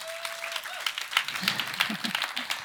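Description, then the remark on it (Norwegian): An audience breaks into applause to thank someone who has helped, a dense patter of many hands clapping at once, steady and fairly loud, with a few voices murmuring faintly underneath. “Da gir vi en klapp”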